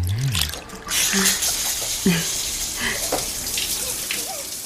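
A shower head sprays water over a dog being washed in a bathroom, a steady hiss that starts about a second in and runs continuously, with a few brief, faint vocal sounds underneath.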